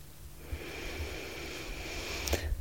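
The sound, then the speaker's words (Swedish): A long, slow inhalation drawn in through the nose during a guided relaxation exercise, a soft airy hiss that swells gradually over a couple of seconds, fairly quiet, ending with a faint click. “Så vi andas in.”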